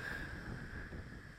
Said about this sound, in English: I hope you can hear the wind in the background. I'm up in Ben Buckler at uh, out of Bondi, looking out over a very